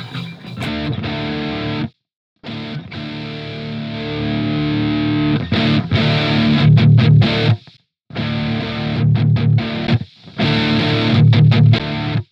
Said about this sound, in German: Wenn ich ihn an- und ausschalte, dann wird es halt wirklich laut. Also das ist halt wirklich, wenn ihr, äh, wenn ihr quasi einen Solo-Sound haben wollt, dann setzt den Booster lieber ans Ende der Kette, ne?